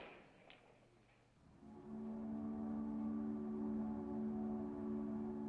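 Ambience at the terminal of the long-distance bus lines on 41st Street and 8th Avenue in Manhattan, New York: a soft background rumble, then a loud, steady, humming drone, like an idling bus engine, swells in and holds until the end.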